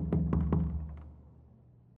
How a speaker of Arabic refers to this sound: وفجأة سمع حد بيخبط بالراحة على باب الكوخ الشاب طبعا اتفزع ما كانش عنده أي نية إنه يروح يفتح الباب وفضل الصوت ده فترة عمال يخبط